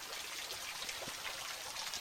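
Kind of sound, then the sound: nature, flowing river water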